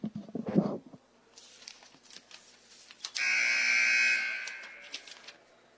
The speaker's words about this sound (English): There's the buzzer, and we're ready to get things underway now.